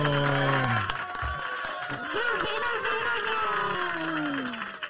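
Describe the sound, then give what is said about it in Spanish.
A burst of crowd applause and cheering on the show El Vacilón, recorded at the eTalent Productions studios, fills the whole stretch, loud and steady, with excited voices and whistling tones rising over the dense clapping before it cuts off. “Un aplauso”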